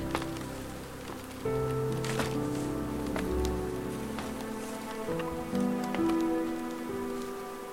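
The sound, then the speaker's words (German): Water is sprayed onto a swarm of bees in a steady, rain-like hiss with a few sharper spritzes, over a continuous low droning buzz that swells partway through. No one speaks. “Okay, ich habe sie eingesprüht.”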